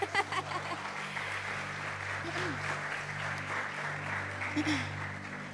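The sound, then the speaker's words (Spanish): A church audience claps together in a steady, sustained round of applause during a morning service, the dense patter continuing throughout with a faint murmur of voices underneath. “Otro aplauso, por favor.”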